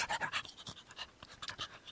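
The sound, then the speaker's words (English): A dog pants in quick, steady breaths, a rapid run of soft, breathy huffs with no talking over them. “So I'll have to bring the dog with me.”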